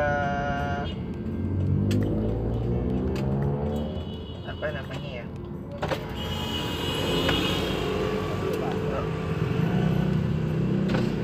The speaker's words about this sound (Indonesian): masih dalam mobil men uh, ini biasalah podcast celotehan gue ini emang selalu gue rekam di dalam mobil sih karena lo tahu sendiri lah kalau misalkan macetnya Jakarta